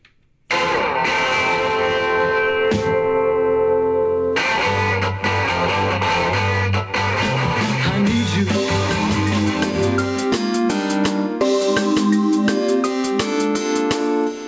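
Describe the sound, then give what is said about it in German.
A 1960s-style rock song plays loud and steady with no talking, starting after a brief pause; a full band with driving bass kicks in a few seconds in over bright, chiming guitar chords. “das klingt ein bisschen nach den …”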